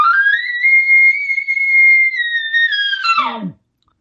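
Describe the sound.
A person imitates an elk bugle with his normal bugle call: one loud, sustained high whistling note that holds steady for about three seconds, then breaks into a rough, dropping grunt before cutting off.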